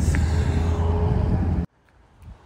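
A loud, steady rush of a car passing on a street in Honolulu, with deep engine rumble and tire noise, cutting off abruptly into near silence with faint low murmurs.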